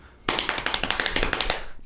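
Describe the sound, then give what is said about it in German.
A rapid series of sharp knocks or taps on a hard surface, about a dozen in quick irregular succession lasting over a second, fairly loud, with no talking. “fang an zu klopfen oder ich fang an zu klopfen.”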